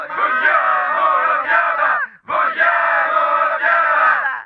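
An angry crowd of bedtime-story listeners, armed with hoes and pitchforks and surrounding a watchtower, shouts in two loud, sustained bursts, many voices overlapping in a dense roar with a brief pause between them.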